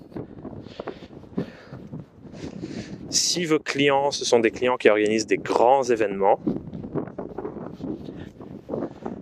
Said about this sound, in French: alors attendez, je vais essayer de cacher mon micro du vent.